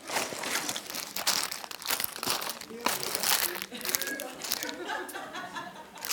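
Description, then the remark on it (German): Paper crumples and crinkles in dense, irregular bursts, fairly loud, with faint vocal sounds like chuckles mixed in. “Nix Flieger. Lauter Bröckel. Papierkram.”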